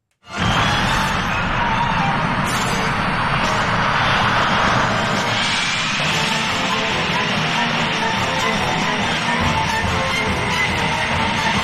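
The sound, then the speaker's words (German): A steady, loud jet-engine roar, a spaceship sound effect from a scene of Yamato, fills the whole clip with a broad rushing hiss that swells slightly early on and holds, with music mixed underneath. “Also wir haben ja so eine Art Düsen-Sound, mhm.”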